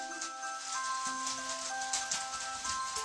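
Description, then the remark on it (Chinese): Steady rain hisses evenly for about three seconds, a soft, continuous patter with faint drip-like ticks, accompanied by sustained gentle musical tones underneath. No one speaks. “雨落在小杰身上，衬衫变得斑斑点点。”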